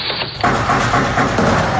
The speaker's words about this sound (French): vous entendez au moment où nous, vous parlons, cette explosion qui vient de, retentir. Le 22 mars 2012, en fin de matinée, les négociations sont dans l'impasse. Le raid donne l'assaut.